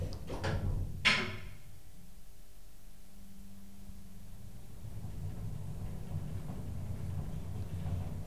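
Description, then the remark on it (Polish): An elevator door slides shut with a solid thud, followed by the low, steady hum and rumble of the lift motor starting up and running as the lift heads to a courtyard level. “Drzwi się zamknęły, ruszamy.”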